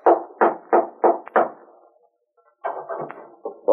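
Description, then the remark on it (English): Someone raps firmly on the door of a house one evening, five evenly spaced knocks, then after a short silence a second, quicker and less even flurry of knocking follows. Fairly loud, with no voices. “One evening, he decided to call on Bob, went to his house, and rapped on the door.”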